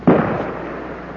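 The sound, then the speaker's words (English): A single loud shot from a big game rifle, fired at a target to sight in a telescopic sight, cracks out suddenly in a rainforest about two miles from the Mendenhall River, mist hanging over the mountains, then rolls away in a long, booming echo that fades slowly. No voices are heard. “Uh, tremendous explosion you, you heard was uh, the sound of uh, two or three people here in the wilderness who have set up targets and they're firing their big game rifles.”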